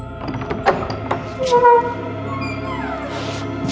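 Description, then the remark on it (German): A narrow wooden door at the foot of the attic stairs is opened slowly by an old lady, creaking, its hinges groaning in drawn-out tonal squeals, with a soft knock of the latch near the start. Moderately loud, with no voices. “Die Waffe war gut gepflegt und gab der alten Dame eine gewisse Selbstsicherheit, als sie sich der schmalen Tür am Fuße des Speicheraufgangs näherte, lauschte und schließlich öffnete.”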